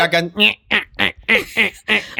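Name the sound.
voice imitating geese cackling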